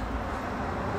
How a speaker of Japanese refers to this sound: 車の音聞こえちゃってるかな